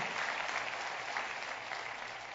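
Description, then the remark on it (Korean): A church audience applauds in thanks to God in a steady, dense wash of clapping that holds at an even, fairly loud level for a couple of seconds, with no voices over it. “우리 하나님께 감사의 박수 드리겠습니다.”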